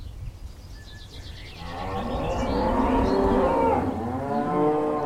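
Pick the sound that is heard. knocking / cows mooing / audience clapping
cows mooing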